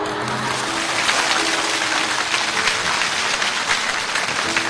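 Steady audience applause fills the whole stretch, a dense, even wash of many hands clapping at once with no pauses and no speech over it.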